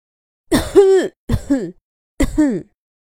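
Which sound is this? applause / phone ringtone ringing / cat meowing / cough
cough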